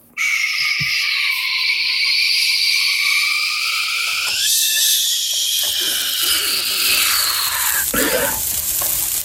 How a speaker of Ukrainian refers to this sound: Ти просто уяви собі, що дивись, ти смажиш цибулю, і вона така.